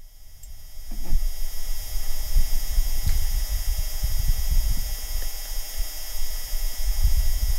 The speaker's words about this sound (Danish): Altså, der er noget vind i en mikrofon?